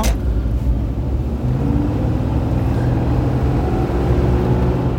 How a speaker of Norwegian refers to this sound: Det er ikke full fart, men den, den går fint, den der 4,2 liter. Hvor mye hestekrefter var det ny i den motoren her? vet du 205 eller 220.